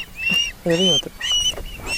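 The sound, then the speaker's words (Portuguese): Several jackdaws or crows call in quick succession, harsh, nasal caws overlapping one another, fairly loud, with a steady low background rumble and no talking. “São umas gralhas.”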